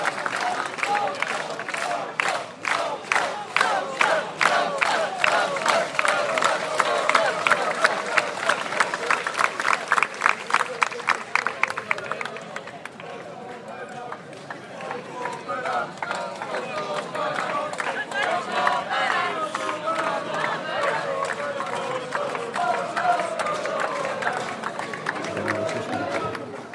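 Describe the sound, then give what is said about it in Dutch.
A large crowd claps in a fast, steady rhythm with scattered cheers, loud, as the entrance doors of a haunted castle attraction slam shut with a loud bang for the very last time; then the clapping stops and gives way to lively crowd chatter. “En met een harde klap en gejoel en applaus vallen dan voor de allerlaatste keer de toegangsdeuren van het spookschot dicht.”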